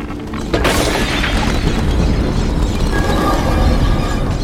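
A sudden heavy thud bursts out half a second in as an airliner strikes birds about three minutes after takeoff on a sunny day, then a loud, steady roar of rushing air and engine noise carries on without any talking.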